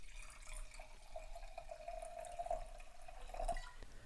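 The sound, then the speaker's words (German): Wine from JB Becker pours steadily into a glass for about four seconds, a quiet trickle with a faint ringing tone that slowly rises as the glass fills. No one speaks. “Und dann gießen wir uns doch mal von diesem wunderschicken Wein etwas ins Glas.”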